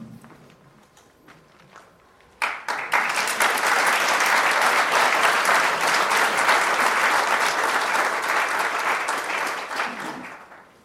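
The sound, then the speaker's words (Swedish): A seminar audience bursts into applause after a quiet moment, dense steady clapping that holds loud for several seconds before tapering off at the end. “Ja, ni fick applåden innan jag hann säga tack.”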